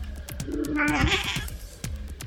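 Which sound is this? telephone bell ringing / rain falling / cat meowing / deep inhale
cat meowing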